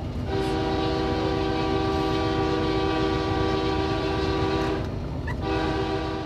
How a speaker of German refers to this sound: Ich liebe den Klang des Zuges. Ich mag es, wie er sich anfühlt. Ich liebe alles an ihm. Er ist ein großer Teil meines Lebens.